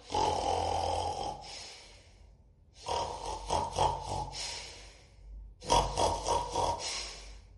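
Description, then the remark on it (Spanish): A voice imitates snoring with three long, rasping breaths from deep in the chest, each separated by a short pause, fairly loud, with no talking. “No importa que no estén dormidas, ustedes ronquen, ustedes ah, emanen un, sonido que salga así como del pecho.”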